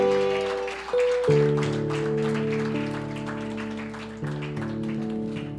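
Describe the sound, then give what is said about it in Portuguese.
A church audience applauding the Lord after a prayer, a steady wash of many hands clapping that lasts throughout, layered over sustained keyboard chords that shift a few times. “Podemos aplaudir ao Senhor.”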